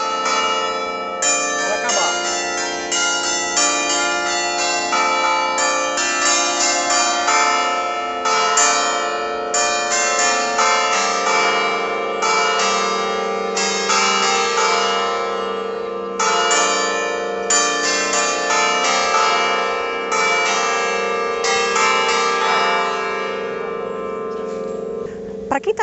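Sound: church bells tolling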